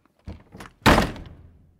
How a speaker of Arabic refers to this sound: هذا الصوت من اهم اصوات المراهقه تسكيرة الباب مش دايما بتكون ناتجة عن مشاحنة مع الأهل أو محاولة لتجنب مشاحنات مستقبلية ممكن تكون بكل بساطة استراحة بين شوطين بعالم مليان أسئلة ما إلها إجابات فورية